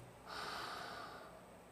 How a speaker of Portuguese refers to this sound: Essa foi uma meditação de três segundos. Porque nesses três segundos eu fiz uma respiração consciente.